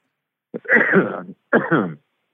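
Two close, loud coughs from one person, the first longer and rougher, the second shorter after a brief pause, with no talking around them.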